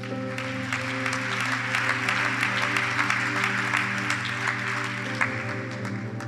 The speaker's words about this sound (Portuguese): Vamos dar uma salva de palmas a Jesus.